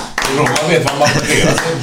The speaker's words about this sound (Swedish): vi måste göra en applåd. Allihopa då.